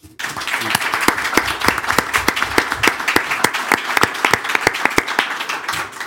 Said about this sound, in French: Applaudissements pour Serge Gouard, maire d'Orléans.